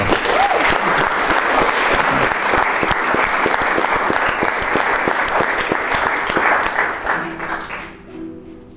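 Sustained, loud applause from an audience, given in advance as encouragement for a singer about to perform a song, dense rapid clapping that holds steady for about seven seconds before tapering off, with a faint tonal hum emerging at the end.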